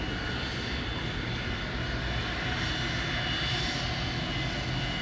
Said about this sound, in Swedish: Planet måste ständigt befinna sig startklart och motorerna hållas gående, kräver kaparen.